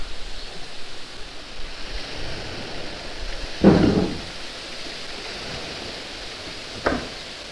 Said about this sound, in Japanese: 朝おばさんがこう土を集めて集めてそうするとカラウスの音が変わるとお話ししましたが今は大きな音が鳴ってますねこういう感じで土をつくことによって砕いていって土の音が変わると。